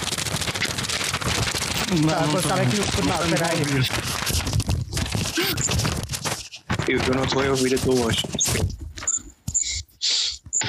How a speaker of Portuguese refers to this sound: Estou a ver, estou a ver, eu vou mexer em papéis.